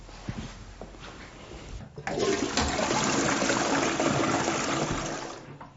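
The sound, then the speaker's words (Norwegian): A toilet flushes: after about two seconds of quiet rustling, a sudden loud rush of water roars steadily for several seconds, then tapers off as the tank refills. “Du, jeg må bare spørre om jeg kan få lov å låne toalettet ditt?”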